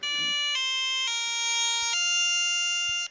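An electronic bagpipe sound from the app Bagpipes for Free: a buzzy, reedy melody steps through four sustained notes over a steady droning hum, loud and continuous for about three seconds with no talking.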